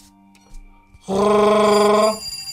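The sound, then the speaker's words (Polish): A doorbell rings in one sustained, loud burst lasting about a second, a bright harmonic electronic tone with a buzzing rattle, preceded by faint low hum and quiet clicks. “Dzwonek do drzwi.”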